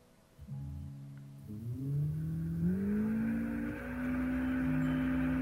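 A power drill whirs steadily, its motor whine climbing in pitch as it spins up and holding there, fairly loud and continuous for several seconds with no talking.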